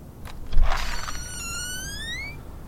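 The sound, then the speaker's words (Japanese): The door of a reception room at the Children's Bureau of Japan's Ministry of Health and Welfare opens with a brief muffled thump, followed by a long, smooth rising squeak that fades out. Moderately loud, with no talking. “失礼いたしますそのドアが開いた瞬間なんだか不思議なものを感じました”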